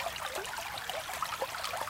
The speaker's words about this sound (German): Er plätschert ungefährlich dahin, der Bach am Treffpunkt in Champs-Secret, 100 Kilometer landeinwärts.